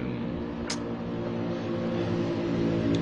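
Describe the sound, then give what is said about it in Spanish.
A very loud motorcycle passes by outside, its engine droning steadily with a low rumbling roar that fills the whole stretch without fading, with no voices heard. “va de pasar una moto recontrafuerte. Creo que se habrá escuchado, supongo.”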